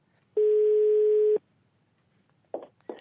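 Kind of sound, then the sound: signal or alarm, telephone ringback tone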